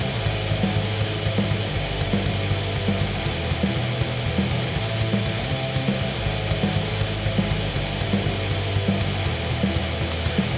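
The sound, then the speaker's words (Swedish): A heavily distorted, buzzing fuzz guitar plays a steady, dense drone with low chugging notes, thick and abrasive throughout, with no voices. “Gillar direkt surrgitarrljudet.”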